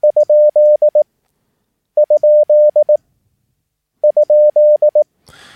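A steady, clear Morse tone sends the question mark, as sent after the Q-code QRZ on the air, three times, each a tightly sent, crisp short-short-long-long-short-short group with pauses between, ending on a brief burst of noise.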